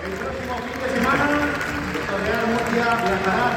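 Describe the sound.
A large stadium crowd applauds the defeated players as they come from the centre of the pitch toward the south end stand, a dense wash of clapping with voices shouting and chanting mixed in, sustained and fairly loud throughout.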